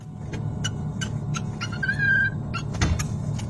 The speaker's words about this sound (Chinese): 我们现在所听到的萌萌的叫声，就出自中科院神经科学研究所所发布的两只克隆猴在保温箱里的视频。这对克隆猴呢，取名叫做中中华华，它们是一对姐妹猴。